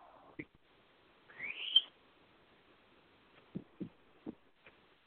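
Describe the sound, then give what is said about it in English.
A pet bird named Pony Bird gives one rising, whistly squeal lasting about half a second, moderately loud, followed by a few soft, low thumps. “I just heard a squeal.”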